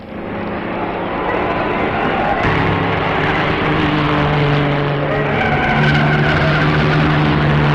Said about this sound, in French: Pendant ce temps, les voitures continuent de rouler sans cesse ou s'arrêtent pour ravitailler.